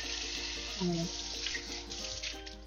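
running tap water

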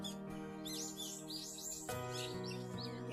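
birds chirping outdoors

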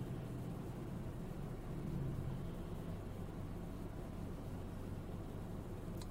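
car interior noise

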